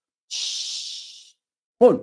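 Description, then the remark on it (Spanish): A voice imitates the hiss a snake exhales as it prepares to bite: one steady, high, airy hiss lasting about a second, fading slightly at the end. After a short pause, a voice starts speaking. “Es utilizado aquí para referirse a la mordedura de una serpiente cuando la serpiente se dispone a morder, exhala algo así como un siseo.”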